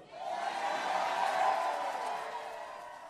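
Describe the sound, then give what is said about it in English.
A crowd booing at a Larry Elder speech, a sustained wash of many voices holding a steady, mid-pitched groan that swells slightly and then eases over a few seconds, with no single speaker standing out. “There's both Larry Elder and there's also all the people booing.”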